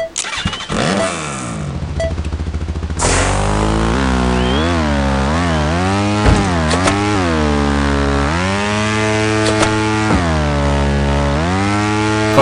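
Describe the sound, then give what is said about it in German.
In the video game Trials Frontier, a motorbike with the Freemium exhaust sputters to life, then idles loudly with a buzzy exhaust note, revved up and down several times in rising-and-falling swells; no voices. “dann machen wir jetzt, jetzt ist, das ist der Freemium-Auspuff.”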